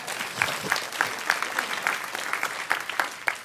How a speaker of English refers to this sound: Y'all need to clap your hands and say amen right there.